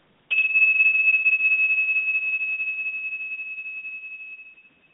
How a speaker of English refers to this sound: And I'm just going to play a bell, just a tone, to kind of bring you inside your body.